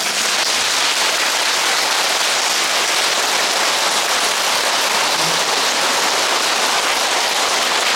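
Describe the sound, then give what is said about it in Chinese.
An audience at a Buddhist talk on the Great Compassion Mantra claps hands in a steady, loud burst of applause, a dense crackle of many overlapping claps that holds evenly for the whole stretch with no one speaking. “对于持大悲咒的人都恭敬如佛哎，拍拍手啊！”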